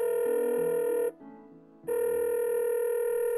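A telephone ringback tone on an outgoing call to the Ministry of Social Development: two steady, bright electronic ring bursts separated by a short pause, with no voices.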